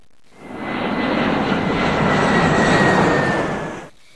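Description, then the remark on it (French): An airplane passes overhead, its broad engine roar rising quickly, holding loud and steady for a few seconds with a thin whining tone, then dropping away. No one speaks. “Si j'étais un véhicule, je serais un avion.”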